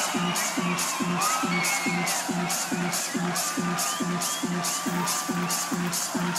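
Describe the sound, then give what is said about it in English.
A festival crowd cheers and whoops continuously, with shrill whistles and shouts rising over a steady, pounding dance beat that thumps about twice per second. “Make some fucking noise!”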